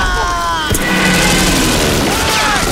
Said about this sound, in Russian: За спинами старшины и Нина раздается взрыв, они спрыгивают в окоп. Пролетающие самолеты сбрасывают бомбы